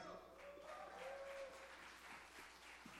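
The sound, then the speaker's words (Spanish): An audience claps steadily throughout at the anniversary of the public radio show Resistencia Modulada, a dense wash of many hands, soft, with a faint voice or cheer rising briefly through the middle. “Y un aplauso a nuestro compañero Mario El Toro, que hoy no nos puede acompañar.”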